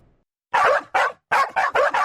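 A dog barks five times in quick succession, loud, with two barks followed by a brief pause and then a faster run of three, with no one talking.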